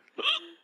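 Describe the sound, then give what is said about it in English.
One small, quick sneeze, fairly soft, a sharp burst that trails off in under a second with no talking around it. “Oh, excuse me. Oh, bless you.”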